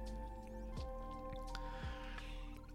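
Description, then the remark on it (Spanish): A person takes a sip of water, with two soft wet gulps and faint liquid squishing against a steady low background hum, no talking. “Vamos un poco de agua y leemos”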